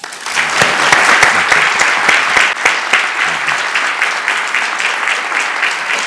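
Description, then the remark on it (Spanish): A welcoming round of audience applause for chef Pedro Subijana, dense and steady clapping from many hands, loud throughout with sharp individual claps standing out early, continuing without any voices for about six seconds. “y sin duda la cocina, la alta cocina, es cultura con mayúsculas y uno de sus máximos exponentes es Pedro Subijana, para quien yo les pido un aplauso de bienvenida.”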